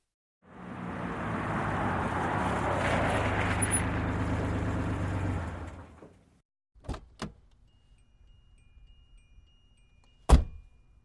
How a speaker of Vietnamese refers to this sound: Anh đang uống cà phê mua từ máy thì bỗng thấy một chiếc xe taxi dừng lại bên đường. Người tài xế bước xuống xe.